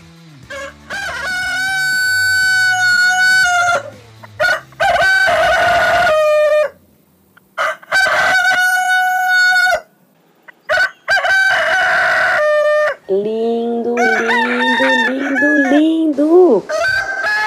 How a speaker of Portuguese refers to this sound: me despeço de vocês com essa gravação linda, feita em 2017, chamada O Canto do Galo